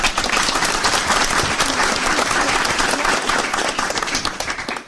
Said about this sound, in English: And a round of applause.